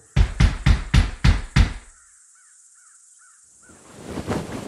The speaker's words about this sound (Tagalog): Isang umaga na pabalikwas ako ng bangon dahil sa sunod-sunod na katok sa pintuan ng kwarto ko.